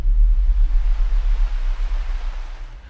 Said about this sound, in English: So in this particular example, the orchid can communicate to you through images and sounds. It doesn't like to be touched, so it creates electrical images and hissing at you.